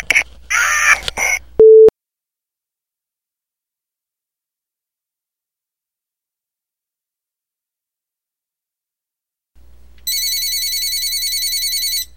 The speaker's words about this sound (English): And there's the phone.